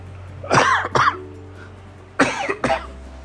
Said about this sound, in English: Excuse me while I cough.